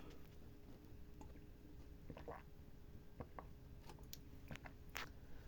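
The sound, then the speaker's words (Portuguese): Quiet sounds of a man drinking water partway through talking alone: soft wet sips and gulps with small clicks from the mouth and throat, spaced irregularly over a few seconds, with no talking. “Eu vou ter que tomar uma água no meio do meu do meu processo de falar comigo mesmo por horas.”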